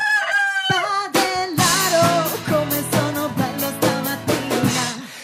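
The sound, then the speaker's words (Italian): A loud rooster crow rings out at the start, followed by a bouncy, rhythmic stretch of band music with a steady beat; no one speaks. The rooster sound and music come from the small studio band of the Radio 1 show Un Giorno da Pecora, which makes animal sounds. “Eh, eh, ci scusi, eh, la nostra orchestrina è così, emette suoni di animali”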